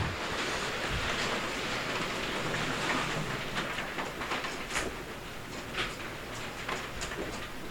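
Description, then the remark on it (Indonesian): Heavy rain pours down in a steady, dense hiss, with sharper splatters and drips popping out now and then. It's fairly loud, with no voices. “Wah hujan cok anjir. Semoga ndak ndak berisik ya.”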